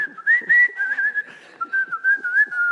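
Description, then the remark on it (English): A person whistles a bright, lilting tune, the melody gliding steadily with small rises and dips, while faint thumps and scraping sounds occur underneath. “and in there is the, is the positive son and he's in there and he's got the window open and he's got a shovel out and he's whistling”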